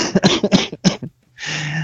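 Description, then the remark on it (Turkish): A sick person gives a rapid burst of harsh coughs, several in quick succession, then a short pause followed by a sustained breathy, rasping exhale or throat-clearing sound. “Gördüğünüz gibi e, öksürttü”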